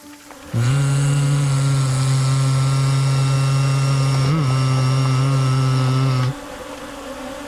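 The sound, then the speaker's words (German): A loud, wasp-like buzzing drone switches on abruptly, holds a steady, rich hum for about six seconds with a brief wobble near the end, then cuts off sharply. No voices. “Und beim dritten Klopfen nimmt er ein wespenhaftes Surren wahr, nur viel lauter.”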